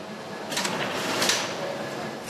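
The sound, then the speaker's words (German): Steady mechanical droning of countless industrial machines fills a large leather production hall, with brief bursts of higher hissing and clattering rising over the constant loud noise. “In den großen Produktionshallen brummen unzählige Maschinen. Entsprechend hoch ist der Lärmpegel.”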